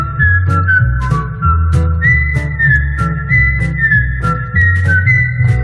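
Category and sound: whistled theme music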